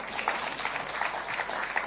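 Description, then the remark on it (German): Steady audience applause, a dense wash of many hands clapping at an even, moderate level for the whole stretch, with no voices on top. “Ja, danke für den Applaus.”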